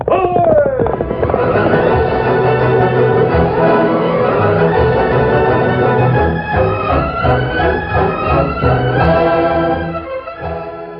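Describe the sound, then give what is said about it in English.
The Lone Ranger's great horse Silver whinnies sharply at the start, then thundering galloping hoofbeats pound along beneath loud, sweeping orchestral music that fills the rest of the passage before easing off near the end. “From out of the past and the thundering hoofbeats of the great horse Silver, the Lone Ranger rides again.”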